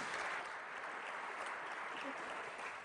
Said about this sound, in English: And I, am glad that you applaud because it's a very great problem for those who oppose this motion, isn't it?